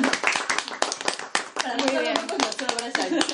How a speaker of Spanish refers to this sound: Un aplauso para ese bebé ahí. Que va a ser precioso.